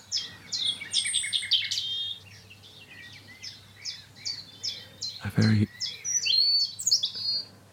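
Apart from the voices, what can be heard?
nightingale song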